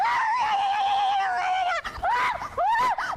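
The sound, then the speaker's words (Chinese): A female news reporter lets out a cartoonish scream while sliding down a steep, slide-like tunnel on a plank road in Kinmen: a long, loud, high wail that wavers slightly, then after a short break a run of warbling, yodel-like yelps rising and falling in pitch. “因为最主要是因为他最后的尖叫声实在是太卡通， 我的意思就是说，如果他做出了像这样的表现的话，哦、大家可以理解，而且这个会爆红。”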